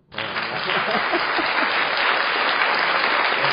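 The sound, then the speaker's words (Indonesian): A burst of clapping starts abruptly and holds steady for a few seconds, a dense, even wash of many hands applauding at full volume. “tepuk tangan dong uh tepuk tangan nih”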